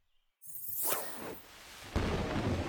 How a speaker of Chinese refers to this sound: 此时正台，一阵沉闷的雷声夹带着一道明闪，将宛城知州府衙门的青砖碧瓦照得一阵惨白。